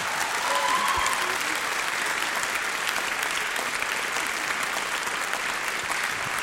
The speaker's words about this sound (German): Wollen wir das nochmal richtig mit einem warmen Applaus zum Ausdruck bringen? So richtig.